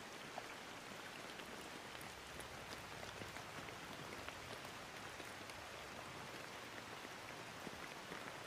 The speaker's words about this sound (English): Return your awareness to the sound of the rainfall around you. Really, really listen. Lend your full attention to the sound of the rainfall around you.